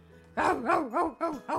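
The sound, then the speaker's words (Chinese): Several tigers roaring: five short, throaty calls in quick succession, each rising and falling in pitch, fairly loud and with no one talking over them. “好多老虎在叫哦。”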